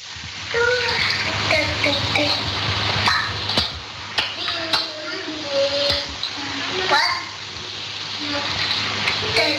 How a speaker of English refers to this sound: There's my daughter in a bathtub at, three, at 13 months of age and she's trying to pick up a cup. Listen to her splashing in the water.